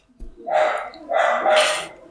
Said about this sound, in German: Da hat ein Hund im Hintergrund Spaß.